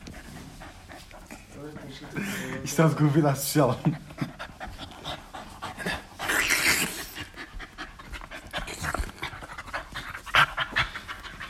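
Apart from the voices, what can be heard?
dog panting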